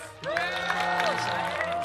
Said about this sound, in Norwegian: Gi oss en stor applaus!